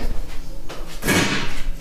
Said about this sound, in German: Das war der Stuhl.